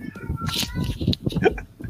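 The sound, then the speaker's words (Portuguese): A cat meows insistently, drawn-out tonal cries blending with murmured human voices in a short, busy stretch of sound. “É a hora do surto do gato.”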